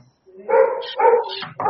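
A dog gives three loud barks in quick succession, each a short harmonic yelp with a brief gap between, heard on their own without any talking.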